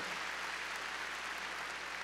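A crowd at a church sermon claps steadily for about two seconds, a dense, even patter of many hands with no voices on top.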